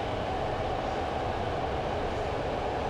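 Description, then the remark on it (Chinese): A BART subway train roars steadily through the Transbay Tube, the underwater tunnel in San Francisco, between Embarcadero and West Oakland stations; the loudest section of the BART system, reaching up to 100 decibels. A dense, unbroken rumble heavy in the low end with a constant hissing wash above it, loud and with no voices. “您现在在背景听到的是旧金山的跨湾隧道 Transbay Tube，也就是 BART 这个地铁系统，在 Embarcadero 和 Oakland 的第一站 West Oakland 之间的声音。”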